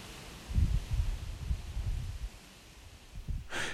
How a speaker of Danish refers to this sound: Udenfor blæser det ret kraftigt, tungt.